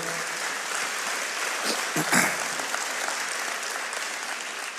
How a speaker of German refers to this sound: Können wir ihm mal einen Applaus geben?